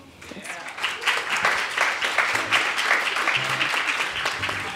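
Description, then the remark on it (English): An audience applauds: a dense, steady wash of many hands clapping that swells in the first half second and stays fairly loud throughout, with faint voices mixed underneath. “Please keep giving it up for them.”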